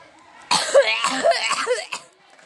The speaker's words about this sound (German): Magst du Hustenduelle?